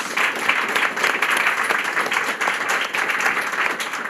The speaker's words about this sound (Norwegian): Applaus.